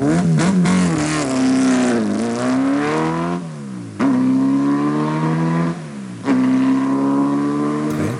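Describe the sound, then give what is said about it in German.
A loud historic sports car engine with an open exhaust revs repeatedly, its harsh, raspy note climbing and falling in several sharp surges, with no one speaking. “Das Boah, ist äh, ziemlich offener Auspuff.”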